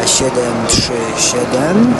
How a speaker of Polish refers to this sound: Na tą chwilę, jak możecie się domyśleć po szumie, który jest dosyć silny w samolocie, siedzimy na pokładzie Boeinga